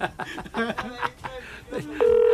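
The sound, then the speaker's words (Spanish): Voices chatter briefly, then a steady, loud telephone line tone cuts in and holds unbroken through the end, a flat electronic hum. “Oye, que está en una llamada.”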